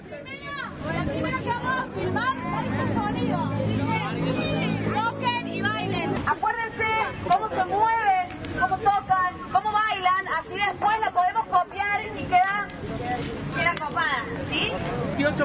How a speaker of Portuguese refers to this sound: som de torcida é som de torcida em qualquer lugar. Vamos ouvir um trechinho. Loucura que namora minha cidade, um filme argentino que vai estar no Cinefute, que começa nessa quinta-feira.